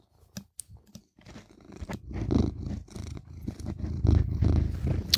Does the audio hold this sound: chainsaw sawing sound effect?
no